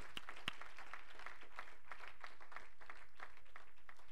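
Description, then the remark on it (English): A church audience claps for God together in a steady wash of many hands, dense and continuous for several seconds at a fairly soft level, with no voices rising above it. “Let's give our God a big hand clap.”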